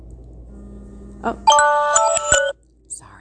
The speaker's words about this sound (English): That was my alarm. Sorry, God.